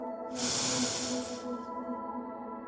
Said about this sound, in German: Nimm einen tiefen Atemzug der Meeresluft ein und aus. Und noch einmal Meeresluft ein.